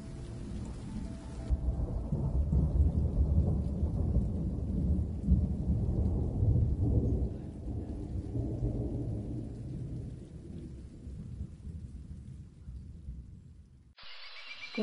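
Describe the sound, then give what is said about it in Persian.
A heavy rainstorm with deep rolling thunder rumbling continuously beneath steady rainfall, loud, easing slightly before cutting off near the end. “بارون اومد با قطره هاش نم نم تیک تیک بارید و بارید با دونه هاش گنجشک رفت پیش ابر و گفت آهای چه خبرته خیس شدم با بچه هام بارون خندید و رفت”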